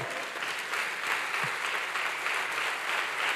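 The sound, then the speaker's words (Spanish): A church audience applauds the Lord steadily, a dense wash of many hands clapping at once, sustained and fairly loud throughout with no talking over it. “Dele fuerte ese aplauso al Señor.”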